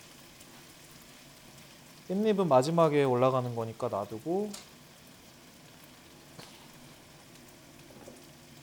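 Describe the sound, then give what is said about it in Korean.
Garlic and onion sizzle steadily in hot oil as garlic oil is being made, with the onion added in, a soft continuous crackle running the whole time, with a person talking briefly over it early on. “마늘 기름을 내면서 양파도 넣어주고”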